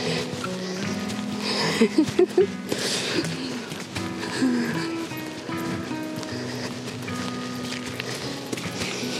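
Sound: rain falling outdoors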